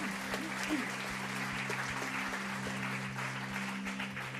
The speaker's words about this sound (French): Peut-être qu'on peut applaudir